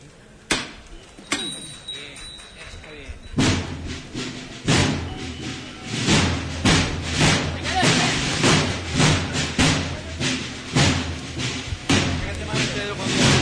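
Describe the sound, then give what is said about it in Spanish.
Small bells on the base of a Virgin statue's procession float ring and jingle in bright clustered bursts after a sharp knock, sounding each time the float is lifted, with a sustained tone early on and dense metallic clinking continuing over crowd noise. “bonito el, sonido de, esas campanillas que se encuentran en, la peana de la Virgen, que cada levanta pues provoca ese sonido angelical que podemos escuchar eh, a lo largo de, su andar y de, y de cada levanta.”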